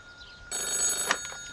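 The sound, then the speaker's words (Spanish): A telephone rings with a bright, metallic bell tone that starts abruptly and holds steady, moderately loud, with no voices. “Oh, el teléfono otra vez.”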